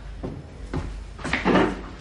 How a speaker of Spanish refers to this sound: Cierra la puerta.